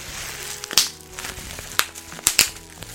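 bubble wrap being popped

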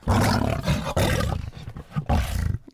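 lion roar sound effect

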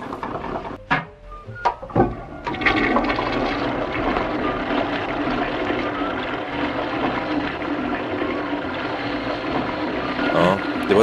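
toilet flushing

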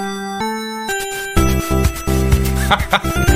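retro video game music

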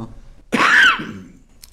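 cough

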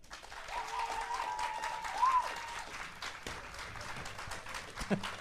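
audience applause

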